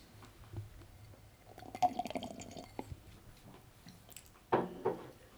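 Slurping as someone drinks water, with two main wet bursts of sipping separated by a short pause and small drips and clicks between. No one speaks.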